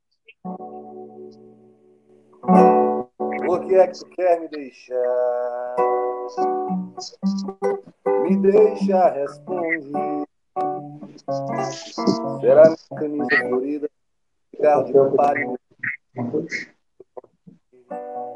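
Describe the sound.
A man sings a melodic song in Portuguese with sustained, held notes, accompanied by a softly strummed acoustic guitar, recorded up close in a live, informal setting.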